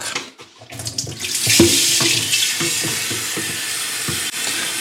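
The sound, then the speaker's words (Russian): Water gushes steadily from a tap into a kettle to make tea, a continuous hiss and splash with a rising, hollow filling tone, after a brief clatter at the start. No one speaks. “Так, сейчас я приготовлю себе чай. Идем, нап наполняем водой.”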